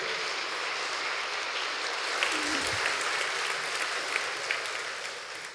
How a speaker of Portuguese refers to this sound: Aplauda ao Senhor, glória a Deus.